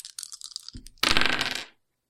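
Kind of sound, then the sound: dice being rolled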